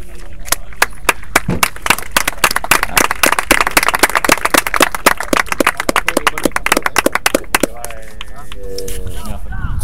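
A small audience claps loudly and steadily for about eight seconds, a brisk patter of hands, before the applause thins out and a voice begins speaking.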